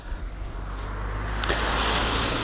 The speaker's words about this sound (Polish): Myślałem, że aż auto przejedzie, bo dogrywkę robię.